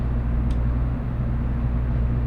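A steady low rumble and hum of a Tokaido Shinkansen Kodama bullet train running from Hamamatsu to Shizuoka, heard from inside the car, with a constant droning roar and a brief faint high chirp early on.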